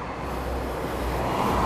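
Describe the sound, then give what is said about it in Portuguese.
A steady, continuous rumble of road traffic as cars pass on a road, with a low engine drone and broad hiss that swells slightly toward the end, no voices. “Ao mesmo tempo, se ele começasse a me bater, aqui não tem ninguém, só os carros passando.”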